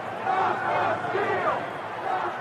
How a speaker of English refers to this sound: On the east side of the Capitol building, a crowd of Trump supporters is growing in number. They're chanting familiar slogans